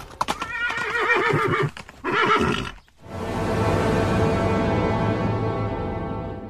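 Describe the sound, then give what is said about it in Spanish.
A horse neighs loudly twice in close succession, followed by a sustained rumbling swell with hooves clopping beneath it, no voices present, in a dramatization of Saul being knocked from his horse by a great light on the road to Damascus. “De pronto, una gran luz derribó a Saulo de su caballo.”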